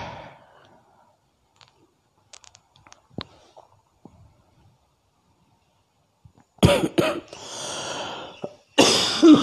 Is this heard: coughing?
yes